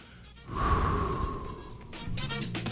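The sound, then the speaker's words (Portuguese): A loud gasp of breath followed by heavy, rushing exhalations, with no talking, sounding like someone catching their breath. “Ah, respirando.”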